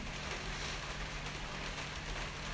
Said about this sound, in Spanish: Es una noche súper lluviosa en Buenos Aires, como escucharán de fondo. Nada más lindo que grabar un episodio con, este, con esta banda sonora que me acompaña.